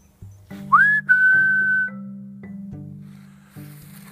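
A short whistled phrase resembling a tune from Ocarina of Time: a quick rising note slides up into a long, steady held tone lasting about a second, clear and fairly loud over a soft, low musical background.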